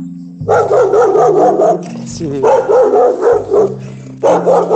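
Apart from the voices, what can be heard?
neighbor's dog barking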